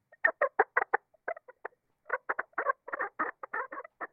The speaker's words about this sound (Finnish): Nyt verrataan sitä madallettuun hiiren ääneen.